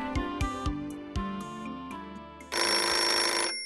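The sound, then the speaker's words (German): A telephone rings: a few short melodic tones, then from about 2.5 seconds a loud, bright, continuous jangling bell burst. No one speaks. “kannst du rangehen?”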